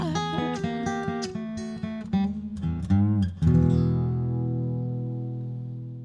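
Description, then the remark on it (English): A clean guitar plays a quick melodic run of plucked notes, then lands on a strummed chord that rings out and slowly fades, with no voices. “on guitar”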